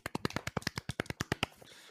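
Brief, close-up hand clapping from one or a few people, a quick run of about a dozen sharp claps in an uneven rhythm that stops after a second and a half.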